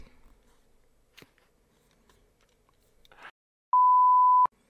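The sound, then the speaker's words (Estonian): A single loud censor bleep over a swear word, a flat, steady electronic tone lasting under a second, cuts in abruptly after a few quiet clicks and rustles, then stops just as sharply. “vabandust, kurat, vabandust vabandust, vabandust, sa võid selle pois. pärast välja piiksutada.”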